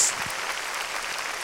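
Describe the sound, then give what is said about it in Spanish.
A church audience claps loudly for the Lord, a dense, steady burst of many hands applauding together that fills the whole short moment without pause. “Démosle palmas fuertes a nuestro Señor.”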